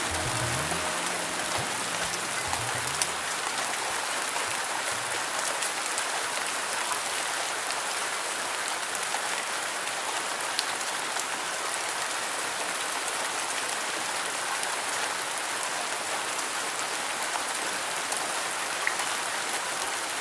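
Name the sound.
rain falling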